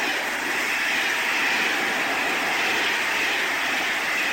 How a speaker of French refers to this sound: Le chien gambade joyeusement et ils aperçoivent, comme tous les matins, le train qui passe sur les voies vers lesquelles ils se dirigent.